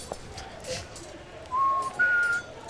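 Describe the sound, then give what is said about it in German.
A person whistles a 'stay away' signal of two clear, steady notes, a lower one followed after a brief pause by a short, slightly higher one, loud over a faint background murmur. “versucht mal diesen, diesen Bleib weg-Ton zu pfeifen.”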